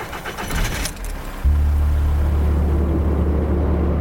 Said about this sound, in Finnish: Tumman sinisen saapin ovet pamahtavat kiinni ja auto karttaa vesilätäkön yli tielle valot välkkyen. Samaan suuntaan kuin äskeinenkin auto.